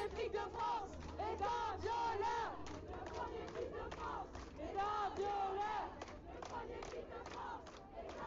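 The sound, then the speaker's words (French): A large crowd of masked feminist protesters with raised fists shouts and chants in unison in Lyon, France, on 10 July 2020: loud rhythmic bursts of many voices rising and falling in waves, with a dense din of chatter underneath. “masque en place et poing levé, plaie ouverte d'où sointe une colère viscérale, nous prenons l'espace, le temps, le son.”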